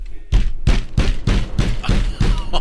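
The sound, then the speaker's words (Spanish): Heavy knocking on a door: about eight loud, booming thuds in a fast, steady rhythm, each with a deep low thump, and no voices. “cuando estaba teniendo sexo volvieron a tocar la puerta.”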